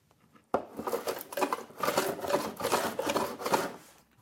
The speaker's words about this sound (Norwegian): høvler på en langeleik han er i ferd med å tilpasse slik at den kan brukes med band